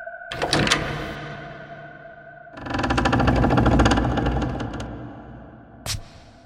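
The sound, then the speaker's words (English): A door handle clicks and rattles as it is turned, then a door with peeling white paint at the top of a staircase opens into a church with a long, grinding, juddering scrape lasting about two seconds, ending in a sharp knock. Fairly loud, with no voices. “At the top of the stairs, he places a hand on the door handle and a wave of foreboding washes over him.”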